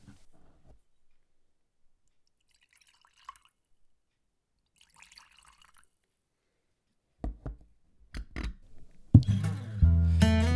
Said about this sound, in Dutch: Gaan we nu die whisky inschenken? Dat gaan we zeker doen.